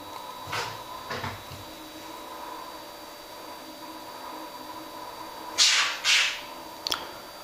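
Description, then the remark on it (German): A cat rattling a door: a couple of faint knocks early on, then two louder clattering jolts and a short click near the end, over a steady background hum. “Der Kater spielt wieder mit der Tür.”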